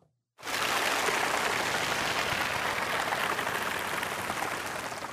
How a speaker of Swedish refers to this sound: Vänta, det är applåderna jag söker. Ni måste hålla ut här, vänta.